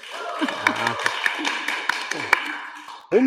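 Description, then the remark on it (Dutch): A live audience of hundreds claps steadily in a hall, a dense crackle of many hands with a few sharper claps and scattered voices and cheers mixed in, ending abruptly. “Voor de luisteraar thuis is er niks anders dan anders, maar voor ons wel, want we bevinden ons namelijk in een heuse zaal met publiek. Publiek, laat jullie eens even horen.”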